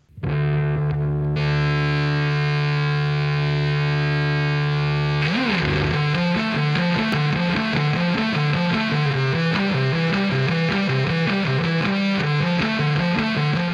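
A distorted electric bass plays alone, first holding a sustained droning note, then moving into a steady melodic line of repeated notes with a smooth, restrained touch despite the gritty tone.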